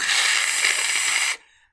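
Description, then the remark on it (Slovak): A voice imitates a toxic cockroach spray being sprayed at a large spider: a steady, loud hissing burst lasting over a second, then an abrupt cutoff with a brief fading tail; no words are spoken. “Zobral som ten sprej na šváby, ktorý inak tam sú tak toxické spreje, Hej.”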